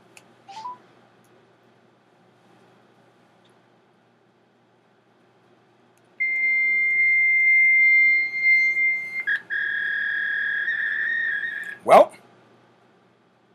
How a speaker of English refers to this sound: That sounded like it was a fax number and not a phone number.